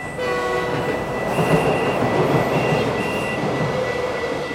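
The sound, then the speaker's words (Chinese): Trains rumbling through a station in a steady, dense roar, with high sustained horn-like tones sounding on and off above it. No one speaks. “嘟嘟到了火车站，他吓呆了，有好多火车跑来跑去。”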